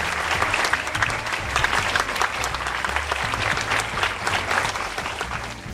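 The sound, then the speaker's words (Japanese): Sustained audience applause for the director and lead actor of the film 幸せ, a dense crackle of many hands clapping at a steady loud level throughout, with some faint low murmuring underneath. “というわけで本日は本当にどうもありがとうございました、ええー、幸せ監督の山松洋さんそして主演の小田切丈さんでした皆さん大きな拍手でごてくださいありがとうございました”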